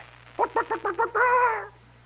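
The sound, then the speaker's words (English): A soldier in an army company imitates a chicken laying an egg: five quick, evenly spaced voiced clucks followed by one longer drawn-out squawk, loud over a faint low background hum. “You hear, cluck, cluck, cluck, cluck, cluck the sound of a chicken.”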